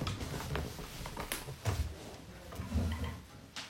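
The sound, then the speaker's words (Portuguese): A door being opened to let a dog out, with a series of sharp latch clicks and handling knocks over a low rumble, and no one speaking. “É, às vezes os cachorros latem, como agora eu tenho que abrir a porta para alguém sair.”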